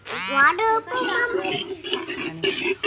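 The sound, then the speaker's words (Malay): A child's voice imitates a gorilla with loud hooting and warbling cries that swoop up and down in pitch, followed by rougher grunting calls over about three seconds. “Oh, ni bunyi gorila.”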